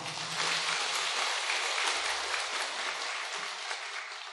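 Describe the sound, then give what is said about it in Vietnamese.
A crowd claps steadily for several seconds, a dense, sustained patter of many hands at even loudness with no voices over it. “rõ ràng nếu quý vị mà công nhận chỗ này thì quý vị có thể cho một chàng pháo tay được hay không”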